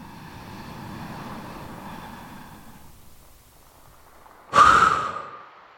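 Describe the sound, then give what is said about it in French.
A long, deep breath drawn in through the mouth, a brief pause, then one sudden, forceful exhale that bursts out loudly and trails off, done to energize oneself during a relaxation exercise. No talking. “Inspirez profondément et soufflez fortement pour vous dynamiser.”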